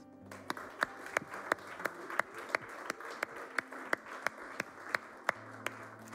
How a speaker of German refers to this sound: Und Genau, ihr dürft gleich nochmal für alle applaudieren, die heute das allererste Mal hier sind oder wenn du das erste Mal online zugeschaltet hast. Der Applaus ist für dich.